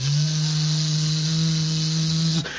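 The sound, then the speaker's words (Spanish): A steady electric buzz of a small drone, a constant motorized whine like a bee that holds evenly for a couple of seconds and then cuts off abruptly. “A mí siempre me había parecido como que, no sé, como que me daba cosita medírmele a un aparatejo de esos que vuela y que a veces uno ve por ahí en el cielo y como que los escucha como”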